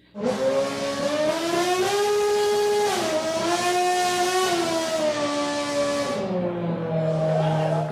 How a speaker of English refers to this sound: I convinced myself it was for the Jon Stewart film, but soon learned it was for NASCAR, a Red Bull sponsored Formula One showcase of a prototype sedan. The highlight was when the car blew the national anthem pseudo melodically out its engine.